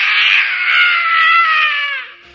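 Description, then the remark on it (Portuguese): A single long, strained scream from a voice imitating a person manifesting a demon in church, loud, holding a harsh high pitch for about two seconds before trailing off abruptly. “Manifestava um demônio na igreja e dava uns gritos.”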